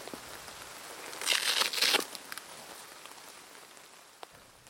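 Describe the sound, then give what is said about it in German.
Steady rain patters on a hard surface, with a denser burst of splashing drops in the middle, then settles back to a soft, even patter with an occasional sharper drip. “Wir kommen zurück aus dem Regen.”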